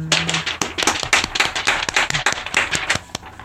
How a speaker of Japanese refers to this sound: 神の拍手です。